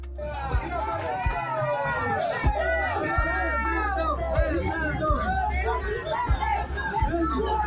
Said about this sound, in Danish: Den ekvadorianske præsidentkandidat Fernando Villavicencio forlader et valgmøde i landets hovedstad Quito, omringet af sikkerhedsfolk og vælgere, som råber hans navn.